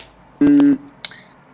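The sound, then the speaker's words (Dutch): A mobile phone gives a single loud, buzzy electronic beep lasting under half a second, followed by a faint click and quiet background noise. “Ik had net telefoon, sorry.”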